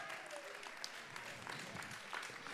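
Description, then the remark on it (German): Steady audience applause in Monheim for the town's geyser, a dense wash of many hands clapping at an even, sustained level, with faint crowd murmur mixed in and no single voice standing out. “Applaus oh, für mal. den Geysir.”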